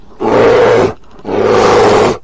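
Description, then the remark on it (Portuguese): A person imitates a bear's roar with two loud, growling bursts, each lasting under a second, separated by a brief pause, with no talking. “aquela silhueta gigantesca de um urso rugindo”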